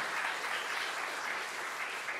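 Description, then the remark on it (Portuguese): A church audience gives a round of applause for God, a dense, steady wash of many hands clapping at once, sustained and fairly loud throughout with no voices standing out. “Uma salva de palmas para Deus.”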